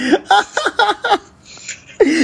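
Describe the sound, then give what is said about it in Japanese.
A run of five or six short, abrupt hiccups in quick rhythmic succession, fairly loud, interrupting speech, then a brief near-silent pause before a voice resumes. “いや考えてたんかなって思ったらしゃっくりで止めてたんやしゃっくりシャックルでちょっと止めてしまいました。”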